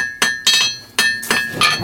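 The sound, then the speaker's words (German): A blacksmith hammers a hot lucky nail, forging the broad flat head at its top, with four sharp metallic strikes in an uneven rhythm, each a bright ringing clang with a sustained high-pitched ring decaying between blows. “Aha, jetzt wird vom Nagel oben die breite Fläche geschlagen.”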